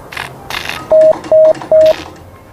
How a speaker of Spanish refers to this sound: Han sonado tres puntos en código Morse. Es el mensaje planeado porque es la letra S. Esa es toda la extensión que tiene el primer mensaje transoceánico, pero sin hilos, de la historia.